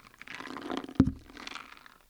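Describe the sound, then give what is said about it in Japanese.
A single soybean rattles inside a papier-mâché daruma as it is shaken, a soft, dry, continuous clatter lasting about two seconds, with one sharper knock midway and no voices. “このねだるまをこう手に取ってみると中がこう音が鳴るんですよね。”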